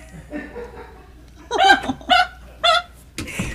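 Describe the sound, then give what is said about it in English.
A man lets out a series of loud, forceful sneezes, three or four sharp bursts in quick succession with a faint murmur of voices before them, odd enough to resemble a dog's bark. “Yeah, I'm just sneezing.”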